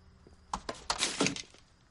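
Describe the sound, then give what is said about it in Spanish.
A mobile phone is smashed by Gus and thrown into a wastebasket: a quick series of sharp, brittle cracks and crunches over about a second, fairly loud, with no talking. “Rompe el móvil y lo tira en una papelera.”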